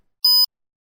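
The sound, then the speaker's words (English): A single short electronic beep, a clean steady tone lasting about a fifth of a second, heard alone against silence, the cue to repeat a dialogue in a language lesson. “Repeat after the beep.”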